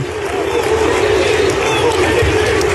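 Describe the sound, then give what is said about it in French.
A large football stadium crowd of Lecce fans in Italy roars continuously, cheering their team's player: a dense wall of cheering and shouting voices that stays loud and steady throughout, with no single speaker standing out. “Le joueur a demandé Demander à l'arbitre de continuer le match, acclamé par les fans de son équipe.”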